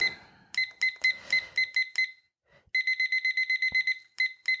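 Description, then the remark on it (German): A kitchen timer being set to 25 minutes: a run of short, high electronic beeps in quick bursts, then a steady rapid string of beeps, and a few more single beeps at the end. No talking. “Ich werde jetzt hier eine Küchenuhr stellen, die ich mir bereitgelegt habe.”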